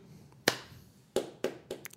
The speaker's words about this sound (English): Slow clap. Literally.